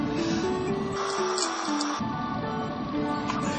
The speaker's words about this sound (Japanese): 今日暑いのねこれもしかしてエアコンうるさいかなちょっと下げようか1ぐらい1だとももはや意味がない